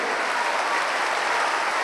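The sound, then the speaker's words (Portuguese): An audience in Rio de Janeiro applauds God steadily, a dense, sustained wash of many hands clapping at once with no pauses and no voices standing out, loud and even throughout. “Então desocupe as mãos e vamos dar a melhor salva de palmas que já se ouviu no Rio de Janeiro para o nosso Deus.”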